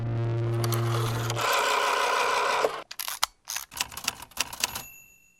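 Crisp typewriter keystrokes clack in an uneven burst, preceded by a steady mechanical hum and whirring rush, with a small bell ding near the end. No one speaks.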